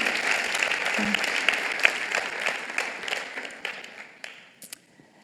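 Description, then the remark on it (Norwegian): A crowd applauds a woman invited forward to speak, a dense wash of many hands clapping that gradually thins out and fades to a few scattered claps by the end. “Dere må klappe for henne.”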